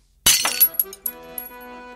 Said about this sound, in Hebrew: ואגנס עזרה לרומאו לשבור את הכוס עם הרגל.